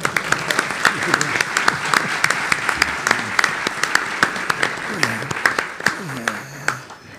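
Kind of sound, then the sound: crowd, audience applause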